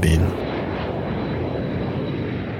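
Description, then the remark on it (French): A steady, loud airplane engine roar drones continuously for a few seconds, broad and rumbling, with a brief trace of voice right at the start. “Et puisque nous parlons beaucoup de la Thaïlande, prenons l'avion,”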